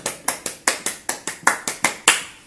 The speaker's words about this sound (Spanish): ¡Aplausos! ¡Aplausos!